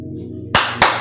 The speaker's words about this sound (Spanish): Aplausos para ti, a quien, a todo aquel que se dio el tiempo de hacerlo. Aplausos.